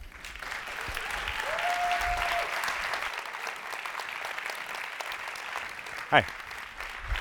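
Sustained audience applause, a dense even clatter of many hands clapping steadily for several seconds, with a brief whistle-like tone and a sharp sweep briefly rising above it.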